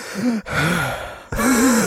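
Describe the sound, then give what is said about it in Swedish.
A person imitates a man panting into someone's ear over the phone at night: three long, loud, breathy huffs with a voiced groaning edge, each separated by a brief pause. “flämtar mig i örat.”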